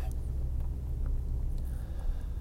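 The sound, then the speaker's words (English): A steady, heavy low rumble of a truck engine as a mobile studio truck sets off on a journey, continuous and fairly loud, with road drone filling the background and no talking. “So we may hear some truck noises and stuff.”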